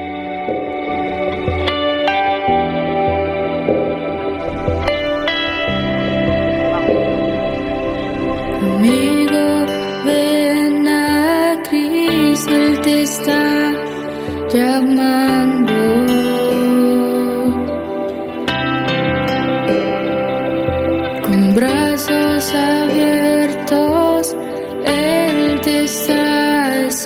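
A worship song plays at a steady, full volume, with a sung melody over sustained chords and a soft rhythmic backing, the vocals carrying a wash of echo.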